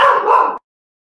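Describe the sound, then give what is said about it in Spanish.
A female dog barks loudly, a short burst of about two quick, rough barks run together, then abrupt silence. No one speaks. “hasta el perro se enojó de lo que estamos platicando de los Falcons”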